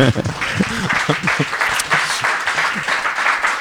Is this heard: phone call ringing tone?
no